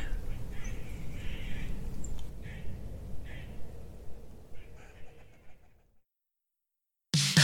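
Several birds call and sing together outdoors over a low background rumble, with repeated chirps and phrases layering for a few seconds before fading to silence.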